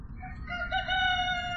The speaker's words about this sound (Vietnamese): Nằm suy nghĩ miên man cả một đêm Thì ông nước bị tiếng gà gáy làm cho bừng tỉnh Qua khe cửa Ông đã thấy được những ánh nắng đầu tiên của ngày mới